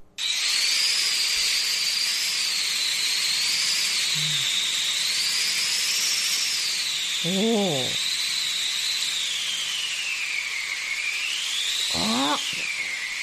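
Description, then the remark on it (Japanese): A custom-built wind machine, not sold commercially and soon to be delivered, whooshes steadily and loudly throughout, its howling pitch slowly rising and falling like gusting wind, while someone briefly exclaims in the background. “ということ、ということはウィンドマシーン。”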